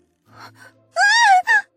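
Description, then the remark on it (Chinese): A woman lets out a loud, high-pitched scream that wavers for about half a second, then breaks into a second shorter shriek, after a few faint breathy sounds. “果然，如同李素所料一般，发出了惊天动地的尖叫。”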